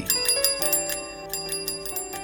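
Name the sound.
bicycle bell ringing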